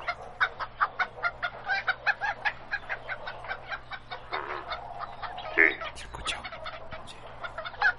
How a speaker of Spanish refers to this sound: se escucha muchos pájaros por ahí, ¿eh? La gallina. La gallina, los pollos, esto.